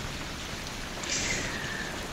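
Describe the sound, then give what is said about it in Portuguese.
Steady rain falls in Rio de Janeiro after many weeks of drought, a continuous, even hiss of drops, moderately loud, with a slightly brighter spatter partway through and no voices. “Eu tô emocionada com a chuva.”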